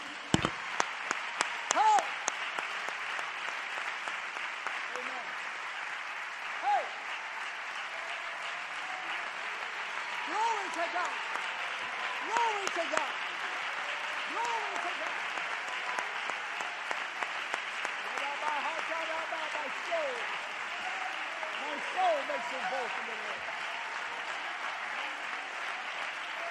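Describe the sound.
A church audience claps their hands unto the Lord in a steady, dense wash of applause lasting throughout, with scattered voices and cheers rising through the clapping.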